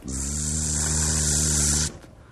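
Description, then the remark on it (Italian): A steady, electric-sounding mosquito buzz in a Scottish castle holds at an even level for about two seconds, then cuts off abruptly into near silence. “Improvvisamente si sente una zanzara.”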